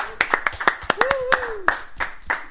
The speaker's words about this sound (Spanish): Muy bien. Señoras y señores. Un aplauso. Un aplauso.